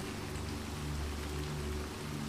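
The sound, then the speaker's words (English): Heavy storm rain pours down outside a manor, pelting the topiary of a maze, in a steady, dense hiss that stays even throughout, with a faint low droning hum running beneath it. No voices are heard. “As the storm rages outside, nature's fury becomes romantic in the refuge of the manor.”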